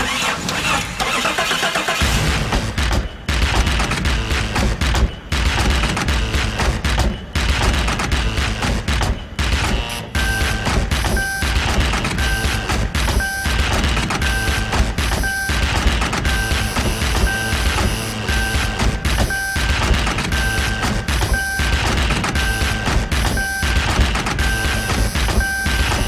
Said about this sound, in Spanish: Los sonidos comunes del auto, como la campanita de la puerta abierta o el clic del pasador, se convierten en sonidos musicales. Ruidos que ya mezclados y coordinados son música para el oído.